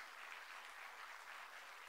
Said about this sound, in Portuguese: Já uma salva de palmas para Jesus.